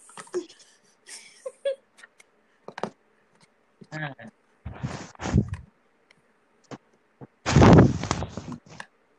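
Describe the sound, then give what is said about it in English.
Irregular rustling of bedding as a person gets off the computer and into bed: several soft scuffs, then two louder sweeping bursts of fabric movement, with small clicks and quiet shuffles in between. “Sorry if you hear rustling. I've just chucked you onto my bed.”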